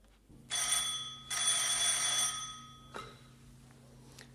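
A telephone bell rings loudly in two long, rattling bursts separated by a brief pause, followed by a sharp click and a quiet hum.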